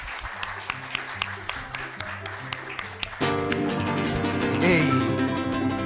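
An audience claps in a steady rhythm over a low bass line; after about three seconds a full band comes in loudly and the music carries on to the end.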